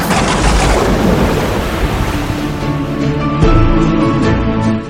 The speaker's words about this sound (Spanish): Nos libraremos de ti, maldita tormenta.